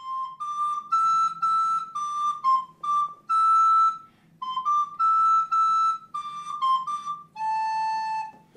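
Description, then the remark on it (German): A flute plays a simple tune to a cobra, a piece from Palestine, the song Sum Galli Galli Sum, in short, bright phrases of repeated and stepping notes, fairly high-pitched and steady in loudness, with a faint low hum underneath and no talking. “Auch Raphael zückt die Flöte und spielt der Schlange etwas vor.”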